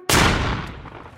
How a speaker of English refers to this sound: I just said, Excuse me. And he shot me with a double barrel shotgun.